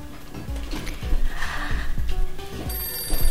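A telephone rings with an incoming call on a live broadcast call-in line: a rapid, repeating electronic trill, fairly loud, while a steady rhythmic pulse runs underneath. No one speaks.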